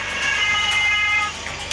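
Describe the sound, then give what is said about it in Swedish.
An ambulance siren sounds loud, a steady, high-pitched tone holding without pause over a faint background rumble, with no one speaking. “Det tog ungefär tio minuter innan sirenerna hördes och den första hjälppersonen var på plats.”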